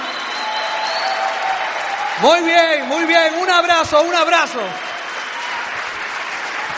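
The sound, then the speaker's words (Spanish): An audience claps steadily throughout, a dense, even wash of applause that never lets up, while a man speaks briefly over it in the middle. “denle un fuerte aplauso a toda la gente que está aquí con nosotros por primera vez.”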